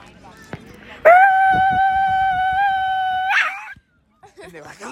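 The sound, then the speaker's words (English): A person imitates a dog barking with a loud, drawn-out howling cry, held steady for about two seconds, then a short break and a few faint vocal sounds afterward. “But they had this dog that was out of control. The dog kept barking like this.”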